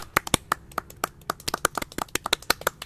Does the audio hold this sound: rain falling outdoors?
no